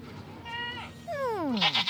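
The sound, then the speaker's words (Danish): Small petting goats bleat twice: a short, wavering cry, then a longer, louder bleat that slides steadily downward in pitch and ends in a rough, breathy trail. “Hej, små klappegeder. Har I set en meget stor klappeged?”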